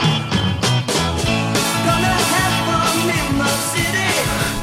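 A loud, dense burst of 1960s-style rock: driving drums with sharp hits, strummed electric guitars and bass filling the mix steadily, with brighter accents surging midway through.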